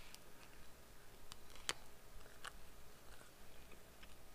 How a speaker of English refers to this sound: Sorry for the long pause there. I'm chewing.